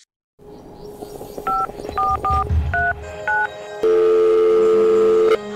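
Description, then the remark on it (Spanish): A series of short two-tone telephone keypad beeps as someone dials a phone call, about six presses at an uneven pace, followed by a steady dial-like tone. Faint background noise runs underneath, with no talking. “Estoy llamando para decirle que no voy a poder pararme a beberme el cafecito hoy.”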